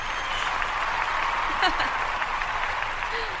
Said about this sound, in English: the crowd goes wild.